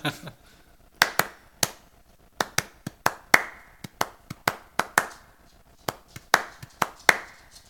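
A single pair of hands claps out a rhythmic pattern, sharp close claps in uneven groupings with short pauses, like tapping out a song's beat, with no one talking.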